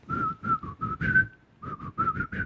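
A person whistles a quick series of short, bright notes up close, with one longer held note in the middle and a brief pause before the final burst of notes.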